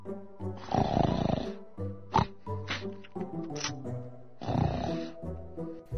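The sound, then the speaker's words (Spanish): Two loud, rasping snores a few seconds apart, each a long rough inhale, with lighter tonal sounds and short bursts filling the gap between them. “Dorotea se duerme en la azotea. Su ronquido despierta a su marido.”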